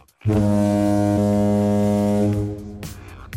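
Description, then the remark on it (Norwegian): A single deep foghorn blast in a show jingle, loud, drones steadily for about two and a half seconds before fading out. No one speaks. “Din kulturelle tåkelur.”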